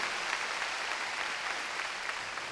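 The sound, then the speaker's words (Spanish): An audience claps steadily throughout, a dense, even wash of many hands at a constant moderate loudness, with no voices standing out. “Ah, démosle palmas fuertes también, hermano.”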